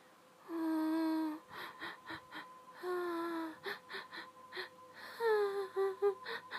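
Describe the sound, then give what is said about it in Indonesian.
A voice imitates a woman crying: three drawn-out, quavering wails, each followed by a run of short, choppy sobbing breaths, fairly loud with no words. “nah pas aku pulang balik itu kan ngelewatin rumah tersebut tiba-tiba ngedenger suara cewek nangis gitu kan satu satu cewek nangis”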